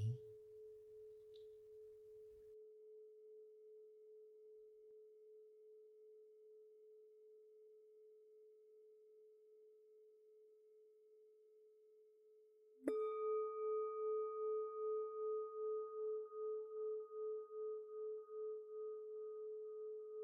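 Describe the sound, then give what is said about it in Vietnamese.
A meditation bell is struck twice, the first tone humming steadily for a long while before a second, brighter strike blooms into a rich, slowly pulsing resonance. No one speaks. “tôi để cho tiếng chuông ngân vang trong lồng ngực cho qua đi những bực tức kỳ vọng đòi hỏi”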